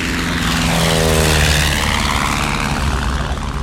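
A propeller airplane roars loudly and steadily as it rolls down the runway, gains speed and takes off, its engine drone rising with harmonic whine and rushing air, continuous throughout.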